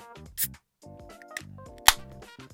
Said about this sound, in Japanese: じゃあこのビアルコール、ビールから作った0.7%のこのザ・ドラフティーどんな味なのか、酒レポいきたいと思います。というわけで缶を開けたらもう取り直しが効きません。いきます。